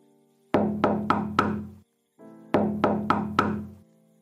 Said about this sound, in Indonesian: Tidak ada jawaban yang terdengar dari balik pintu Hanya suara pintu yang terus-terusan diketuk